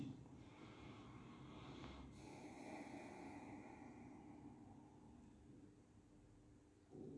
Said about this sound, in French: respiration de transition.